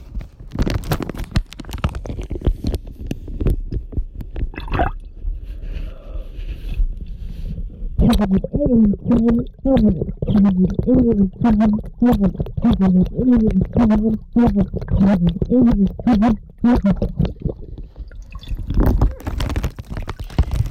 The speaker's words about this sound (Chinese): 感觉这集会很吵，都是水声跟爆掉的声音。